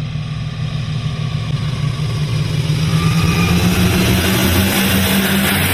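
Loud, steady droning of historic propeller aircraft engines passing overhead during landing, a deep rumbling hum with a rising roar that builds and holds throughout, no voices.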